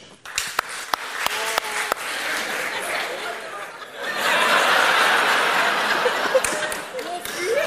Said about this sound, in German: Wer hat in diesem Jahr die binomische Formel verwendet hier im Saal? Bitte einmal in die Hände klatschen.